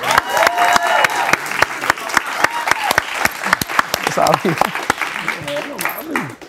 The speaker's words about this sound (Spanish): Un aplauso para eso.